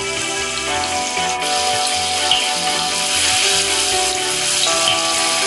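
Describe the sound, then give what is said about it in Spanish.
Tofu sizzles in a frying pan with a steady, dense crackle that holds at an even loudness for several seconds, over a faint steady tonal hum. No one speaks. “Ahora en una sartén Voy a freír el tofu porque me gusta que quede un poco crujiente.”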